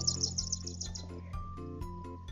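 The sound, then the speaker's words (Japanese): Bright, rapid bird chirps in an open-world video game trill high above a steady low hum of game ambience, repeating in quick bursts with a few soft thumps underneath; no one speaks. “鳥の声聞こえる、すごくない鳥の声がするよ。”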